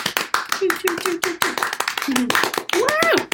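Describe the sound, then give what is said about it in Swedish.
A small group applauds with quick, steady hand claps that continue throughout, while voices speak and call out over the clapping, one rising into an upward whoop near the end. “Tänker en applåd ja. till oss.”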